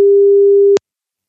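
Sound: telephone ringback tone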